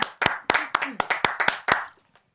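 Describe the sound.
About ten quick, sharp hand claps in a brisk, slightly uneven rhythm, with excited voices cheering alongside, all stopping abruptly after roughly two seconds.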